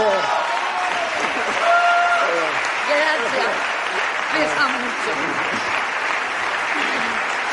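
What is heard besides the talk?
audience applause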